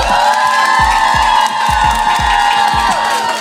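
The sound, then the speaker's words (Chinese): A small live audience of fans, gathered for a one-year anniversary recording, claps and screams excitedly, with high-pitched shrieks and whoops held over steady, rhythmic thumping, loud and continuous throughout. “那为了希望能够让听众朋友们确定真的是现场有人，所以所有的铁粉们可以就是给我一点掌声加尖叫吗？”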